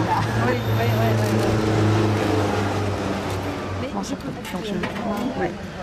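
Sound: street traffic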